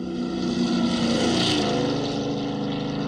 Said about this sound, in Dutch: Wat je nu hoort is het Doppler-effect. Dat ken je waarschijnlijk wel. Eh, als licht, maar ook geluid uit een bewegende bron komt, dan verschuift de frequentie.